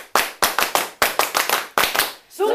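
Sharp hand claps in a quick rhythmic pattern, about a dozen loud claps in short groups, the '爱的 Super' cheer clap given by a Taiyi (太毅) audience to welcome a guest teacher, ending with a brief voiced shout.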